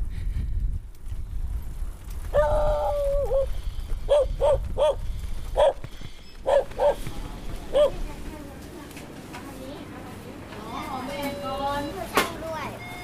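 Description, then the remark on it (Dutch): Dogs bark in a quick series of about a dozen sharp yaps over a few seconds, against a steady outdoor rumble, then the barking falls quiet. “Maar jij ging net keer tegen een paar lelijke honden. Die zagen er niet zo lief uit.”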